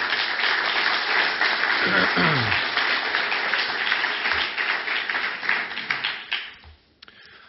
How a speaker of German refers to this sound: Ein kräftiges Dankeschön, das ist doch ein kräftiger Applaus wert, nehme ich an.